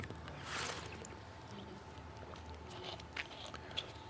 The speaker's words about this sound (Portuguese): Água, tem uma água aqui, delícia. Vou beber água.